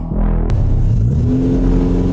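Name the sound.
car engine revving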